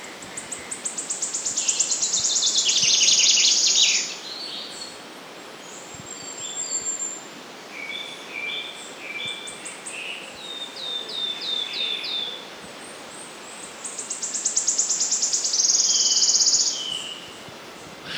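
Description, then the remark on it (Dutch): Forest bird song with high, ringing phrases that speed up like a dropped coin spinning to rest, two long bursts at the start and end with shorter notes between, over a steady insect hiss. “Eh, maar zijn, zijn, zijn zang is, ja, dat is zo, ja, zoals ik zei, een, een, muntstuk dat valt eigenlijk.”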